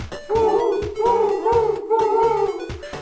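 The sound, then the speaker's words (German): An owl-like hooting repeats in a steady rhythm, several loud, sustained tonal hoots in quick succession, clear with no one talking. “What does the Eule say?”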